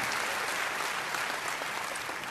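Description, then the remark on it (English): An audience claps together in steady, sustained applause, a dense wash of overlapping hand claps that stays loud and even throughout with no voices standing out. “Jesus walks over and heals that blind man by show of applause.”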